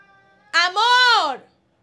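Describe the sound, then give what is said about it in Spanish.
A cat named Eduardo lets out one loud, drawn-out meow, starting with a short chirp before the pitch rises and falls. “Yo no sé si ustedes escuchan a Eduardo, pero Eduardo está gritando.”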